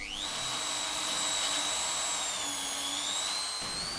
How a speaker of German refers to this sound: Mit diesem Gerät stellen wir einen Muschelsmoothie her. Mit einem Pürierstab werden die Muscheln zerkleinert und anschließend aufwendig gereinigt.